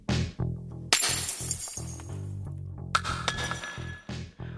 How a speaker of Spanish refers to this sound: Serían las 2 o las 3 de la mañana cuando escuché un ruido en la puerta de la entrada, como un vidrio que se rompe.